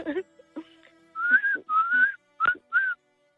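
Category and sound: human body sound, person whistling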